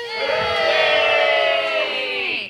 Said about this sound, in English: The heroes cheer. Whee!